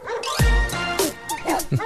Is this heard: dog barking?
yes